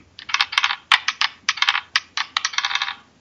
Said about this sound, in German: So, würfel mal.